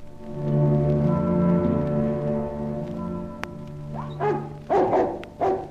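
A dog named Sherry barks three or four times in short, loud bursts, coming after a few seconds of steady low droning background sound. No one speaks.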